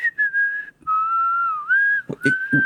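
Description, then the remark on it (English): A man whistles a sustained, wavering tune instead of talking, holding long notes that slide in pitch, with a few soft thumps or knocks near the end. “Why is he whistling instead of talking?”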